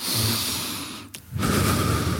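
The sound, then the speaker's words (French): A slow, deliberate breath demonstrating an exercise breathing technique: a long, airy inhale, a brief pause, then a strong, rushing exhale, all without talking. “Donc, tu nous donnes un petit aperçu micro de la respiration.”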